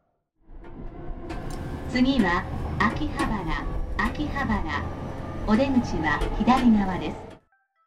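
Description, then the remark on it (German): Busy city street ambience in Tokyo's Akihabara, with loud voices and chatter over a steady low traffic rumble, lasting several seconds before cutting off abruptly. “Erkannt? Richtig, es geht nach Akihabara, zu Deutsch in etwa Herbstlaubfeld.”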